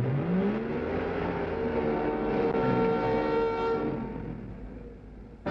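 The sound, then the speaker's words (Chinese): A small car's engine revs upward in pitch and then holds a steady, roaring drone as it speeds along a winding, rolling road, fading slightly near the end before a brief sharp burst. No one speaks. “小汽车像一头没有龙头的野马，奔驰在弯曲起伏的公路上。”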